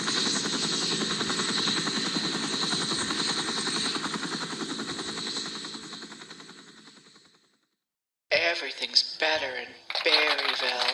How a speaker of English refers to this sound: Uh, sorry, I can't hear you. The helicopter's too loud.